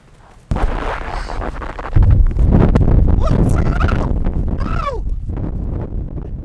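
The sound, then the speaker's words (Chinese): Very strong wind on Changbai Mountain, at more than twenty degrees below zero, roars and buffets the microphone in a loud, continuous low rumble after a quiet opening half-second, with a few brief, high, wavering vocal squeals rising over it as the recorder's windscreen is blown away. “现在在长白山上，都是风吹过的声音。现在应该是零下二十多度，风非常的大。”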